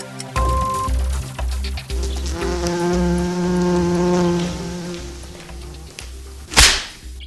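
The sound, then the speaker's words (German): A wasp buzzes loudly with a steady, droning hum for several seconds, its pitch wavering slightly, before a sharp whip-like swish cuts through near the end. “Warum sind Wespen eigentlich so aufdringlich, vor allem bei Kaffee und Kuchen?”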